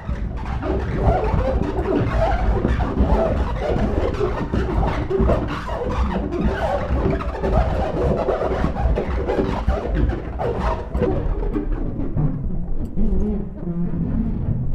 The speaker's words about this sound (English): Multiple fingers on a shower glass.